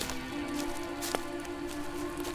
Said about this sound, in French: Tu vas t'y réfugier quand une grosse pluie d'été s'abat sur toute la forêt. Le tonnerre gronde.